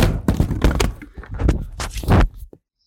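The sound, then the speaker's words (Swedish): A laptop is dropped onto the floor while someone runs into the bedroom, landing with a loud thunk followed by a string of clattering knocks and bumps, then everything goes quiet. No one speaks. “Och medan jag springer in i sovrummet tappar jag omgående datorn i golvet.”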